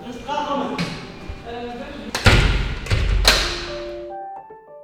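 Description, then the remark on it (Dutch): A heavy door thuds shut behind detainees, followed by a couple of sharp metallic clunks as it is locked again, loud, with voices and tones sounding before and after. “Ze aaien de honden nog voor een laatste keer over de neus, voor ze verdwijnen achter een deur, die onverbiddelijk weer op slot gedraaid wordt.”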